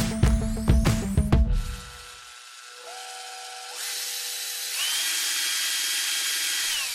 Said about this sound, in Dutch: Wat je hier hoort is ons piepkleine radiostudiootje dat uit elkaar wordt geschroefd.